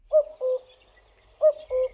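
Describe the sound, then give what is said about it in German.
A cuckoo calls its clear two-note song twice, each falling 'cu-coo' pair separated by a short pause, heard alone against a quiet background. “Hören Sie den Kuckuck?”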